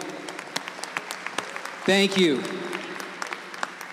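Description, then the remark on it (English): An audience at the Voice Summit conference claps steadily throughout for the Audiobrain team who created the conference's sonic brand, a dense patter of many hands at moderate volume, with a single voice briefly speaking over the applause midway. “Give it up”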